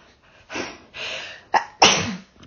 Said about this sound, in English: oh, I just need to sneeze